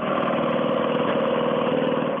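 A car engine idles steadily, a smooth, even low rumble that holds constant without revving for the whole moment, with no voices over it.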